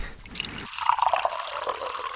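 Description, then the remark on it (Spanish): Water is poured into a glass for drinking, a steady splashing stream with bubbly gurgles whose pitch rises slightly as it fills, lasting about two seconds with no talking. “tomemos un poquito de agua.”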